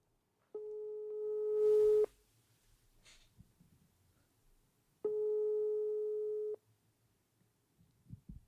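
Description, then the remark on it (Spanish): A telephone ringback tone: two steady electronic beeps, each lasting about a second and a half, separated by a long pause, with faint rustling and breathing in between. “¿Le marcamos de una vez?”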